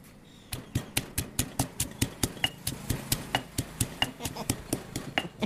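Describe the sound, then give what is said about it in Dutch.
Steady, rhythmic pounding of chili peppers in a mortar by a cook, about four dull thuds per second, moderately loud, with no voices over it. “Nou, ze gaat nog even wat pepers stampen in de vijzel.”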